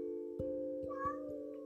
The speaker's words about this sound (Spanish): Ay, se despertó el gato. ¿Va a seguir llorando?